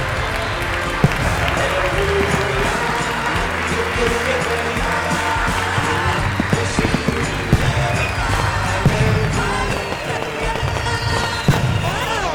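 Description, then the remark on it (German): A large audience, asked to stand, applauds steadily for the whole stretch, a dense, loud wash of clapping that never lets up, with faint crowd murmur mixed in. “Auch Sie, verehrte Damen und Herren, die uns durchs Radio oder online hören, auch Sie bitten wir nun, aufzustehen. Die Bundesrepublik Deutschland schenkt Schei einen Applaus. Applaus!”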